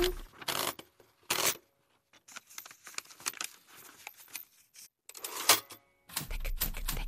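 Clacking typewriter keys strike in quick, uneven bursts, with brief pauses and louder carriage-like clunks between runs, fairly loud with no voices.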